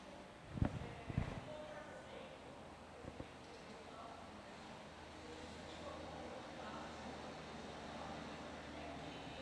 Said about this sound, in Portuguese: Deixa passar o trator.